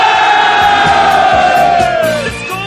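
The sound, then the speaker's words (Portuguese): The live audience at Campus Party cheers loudly and steadily, a mass of voices holding a long shout whose pitch slides gradually downward before easing off near the end, with scattered claps and whoops underneath. “É assim a galera da Campus Party!”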